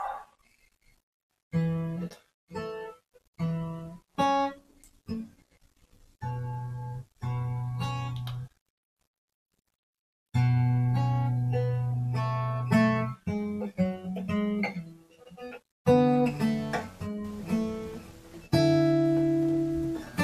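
A solo acoustic guitar, a J45, is fingerpicked in solo guitar practice, playing halting phrases of plucked notes and chords that ring out, broken by short pauses and one longer silence midway.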